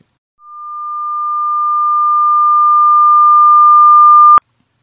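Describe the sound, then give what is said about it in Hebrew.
A steady pure test tone, played as an example of a sound wave whose loudness changes over time, starts softly and swells gradually louder over about four seconds, then cuts off abruptly with a small click. No voices. “בדוגמה שאני הבאתי יש לי גל קול שהעוצמה שלו משתנה עם הזמן, אפשר לראות שהיא מתחילה, הוא מתחיל חלש ומתגבר.”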